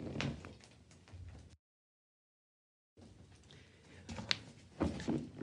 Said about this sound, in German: Und ja, jetzt klingelt die äh, Tür und ich muss kurz zur Tür.